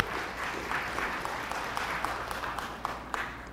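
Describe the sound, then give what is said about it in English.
An audience applauding a point about hiring staff with criminal convictions, a dense wash of overlapping claps with a few sharper individual claps standing out, holding a fairly even level throughout. “sorry, you can applaud for that. That's good too.”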